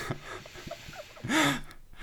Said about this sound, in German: So alle 10 Minuten irgendwie so ein Ton von unser, so ein, so ein schweres Atmen.